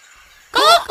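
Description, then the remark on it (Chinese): After a faint, quiet half second, turkeys break into loud, warbling, gobble-like laughter in two quick bursts, high and chattering, laughing at the words "banana pants". “瞧，那些讨厌的火鸡笑起来了。”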